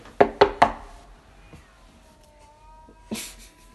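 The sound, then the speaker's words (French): Three quick, sharp knocks on a window, followed by a cat's drawn-out meow and another dull thump near the end, with no talking. “non, on n'ouvre pas la fenêtre au chat, il fait trop de bruit.”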